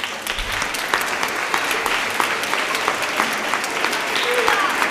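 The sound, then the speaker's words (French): An audience applauds together to thank God, a steady, dense patter of many hands clapping that holds at an even level for about five seconds, with no voices standing out. “Et je vous propose, pour remercier Dieu, de peut-être l'applaudir.”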